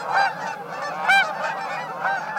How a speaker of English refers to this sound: Among the most evocative sounds of early autumn are the voices of migratory geese, flying high overhead in V formation. The migrating Canada geese heard here are returning from nesting in Canada and Alaska.